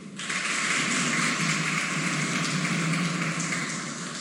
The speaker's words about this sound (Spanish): Con este aplauso Escuchábamos las declaraciones en vivo del presidente de la República, Luis Abinader, desde el Palacio Nacional, en donde el jefe de Estado dominicano recibió el informe País de la República Dominicana